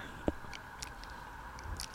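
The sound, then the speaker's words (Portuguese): A quiet sip of water: a soft gulp early on, followed by faint wet mouth clicks and a small swallow near the end, with no talking. “Peraí, vou até beber uma água para fazer o discurso.”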